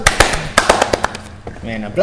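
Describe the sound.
A short applause sound effect played on a radio show: a quick, uneven run of sharp, crisp claps that thins out and fades, followed by a brief voice at the end.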